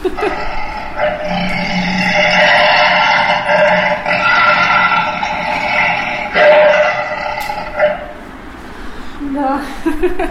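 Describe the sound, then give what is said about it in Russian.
A mechanical lion automaton roars, driven by air-blowing organ mechanisms hidden under the floor: a sustained, droning roar with harmonic, organ-like tones and a rough low growl, lasting about eight seconds before fading into softer sputtering noises. “Подобного рода Очень львы, да, подобного рода львы работали с помощью специальных воздуходувных, то есть органных механизмов, которые были спрятаны под полом этого помещения.”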